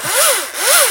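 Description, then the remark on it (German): A cordless battery-powered electric saw cuts a tree before it is set up, giving two loud rasping passes whose pitch rises and falls with each stroke. No one speaks. “Das ist eine Elektrosäge. Elektro Akkusäge, genau.”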